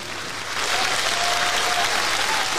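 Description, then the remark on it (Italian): An audience claps steadily for a competing act, measured by an applause meter: a dense wash of applause at moderate volume that swells slightly after the first half second and holds without pause. “Eh eh eh un po' bassino rispetto agli altri, forse?”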